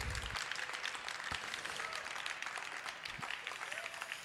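An audience applauds steadily, a dense wash of many hands clapping at an even loudness throughout, with a faint murmur of voices mixed in, at the fourth poetry slam in a university courtyard after a performer's score of 27 points is announced.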